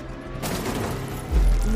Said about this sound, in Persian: نه نه نه زلزله نبود انگار یه ماشین کوبیده بود تو در انبار بعدش هم سر و صدای تیراندازی